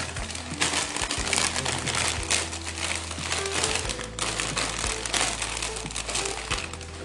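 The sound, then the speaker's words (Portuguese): Plastic grocery bags crinkle and rustle continuously as items are unpacked, with scattered louder crunches and a low steady hum underneath; no one speaks. “Tem uma ironia gostosa de estar tá pensando nisso enquanto eu tiro as coisas do mercado”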